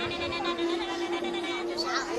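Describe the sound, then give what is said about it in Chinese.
Voices singing the folk Goat Song sing a sustained, nasal, steady-pitched tone that mimics a goat's bleat, with a wavering, quavering rise near the end, loud and continuous for about two seconds. “小动物的叫声则是孩子的启蒙老师。 来山羊歌。”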